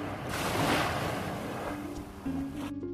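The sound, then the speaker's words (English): Waves lap onto a shore in a steady, hissing wash that swells early and then eases back, with a faint low hum rising near the end. “But is what you hear is almost like the sounds of waves lapping onto a shore on the other side.”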